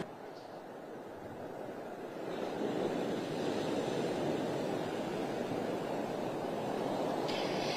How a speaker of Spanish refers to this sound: Bueno, y como dicen los habitantes aquí de Vero Beach, el mar todavía está muy bravo y yo creo que ustedes lo alcanzan a escuchar que todavía está rugiendo.